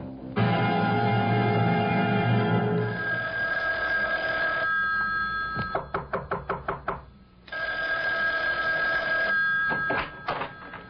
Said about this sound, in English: Isn't that your phone I hear ringing? Yes. Why don't you answer it?